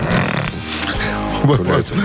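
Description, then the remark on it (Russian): A man yawns at 8 a.m. with his nose pressed against the microphone: a loud, drawn-out yawn, breathy and rumbling with a voiced groan rising near the end, lasting about two seconds. “Я просто зевнул. Да, и носом уперся в микрофон.”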